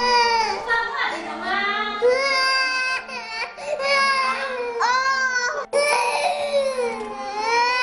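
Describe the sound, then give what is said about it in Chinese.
A baby lying in a cradle cries without letup, refusing to drink milk, in loud, high-pitched wails that rise and fall, broken only by a couple of quick gasps for breath. No one else speaks. “有个还在摇篮里的小婴儿在不停地哭闹着，不肯喝奶。”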